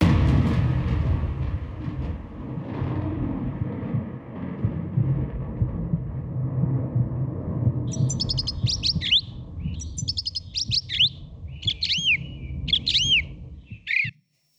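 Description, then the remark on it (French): Small birds chirp in quick, bright bursts of several notes, repeating over several seconds above a steady low rumble of background noise, with no voices. “toujours agréable ces petits oiseaux.”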